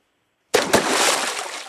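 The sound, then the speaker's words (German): A sudden loud splash as someone jumps into water, followed by a second of churning, bubbling water settling down. Forceful, with no voices. “Und da hören wir ein großes Platschen. Da springt jemand ins Wasser.”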